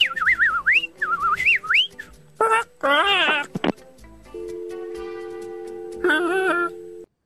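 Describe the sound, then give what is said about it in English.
A person whistles warbling, bird-like trills that rise and fall in pitch, imitating bird calls over the phone to a woman at a bird sanctuary, followed by bursts of chirpy vocal imitation and a steady tonal hum, with no words spoken. “I was trying to talk to her in bird, and oh well.”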